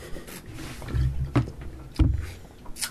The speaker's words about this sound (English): All right, guys, sip of coffee for the working man. Got the Sierra Nevada coffee stout tonight.